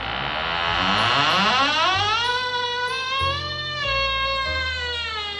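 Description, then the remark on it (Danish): A very heavy iron door at the bottom of a staircase leading into a cellar archive is pulled open with full force, its hinges letting out one long, loud metallic groan that slides upward in pitch and then holds a steady, buzzing creak. No one speaks. “Det er en meget tung dør, så han skal lægge alle kræfterne i for at få den åbnet.”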